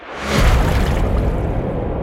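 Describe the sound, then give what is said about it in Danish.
A heavy splash of a man falling into a river: a sudden broad whoosh of impact swelling quickly, then a sustained rushing, churning wash that carries on loudly for a couple of seconds, with no voices. “Så når Matt rammer floden, så skal du ikke bare sige... Det skal jo sige...”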